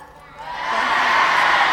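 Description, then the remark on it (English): An audience, called on as a flock of sheep during a team game, bleats together like sheep, a thick chorus of voices imitating baaing that swells up after a brief moment and holds loud and steady to the end. “Let me hear all the sheep baa.”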